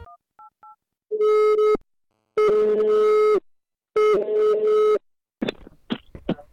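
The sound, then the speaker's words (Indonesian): A few quick keypad beeps, then three loud, steady ringback tones repeat with short pauses between them, and a voice briefly answers at the end. “Kita telepon dulu eh, bepun saudara satu ini, mari kita simak.”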